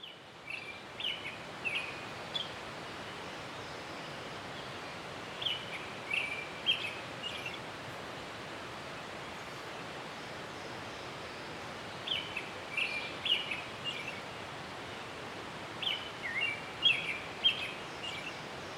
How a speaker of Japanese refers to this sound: ちょっと研修会場裏手の土手で音を取ってきましたので、えー、聞いてみてください。